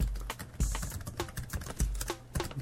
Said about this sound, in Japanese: いいでしょこのタイピングの音も。